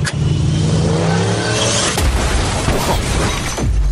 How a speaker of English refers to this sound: He said, "Was out having a smoke, sounded like someone racing, slammed the brakes, and hit something."